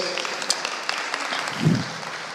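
A brief round of audience applause: a dense, steady patter of many hands clapping at once, holding an even level for about two seconds with one low thump near the end.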